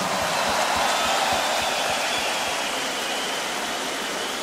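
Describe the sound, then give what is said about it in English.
An audience at the Tomorrowland festival, celebrating its 15 years, breaks into sustained applause, a dense, even wash of many hands clapping together that holds steady throughout without any voices on top. “Maybe we should give a round of applause to the beautiful people of tomorrow.”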